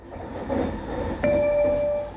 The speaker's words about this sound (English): the next station chime and announcement.